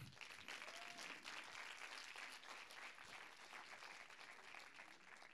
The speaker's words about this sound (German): Gebt ihm mal einen herzlichen Applaus.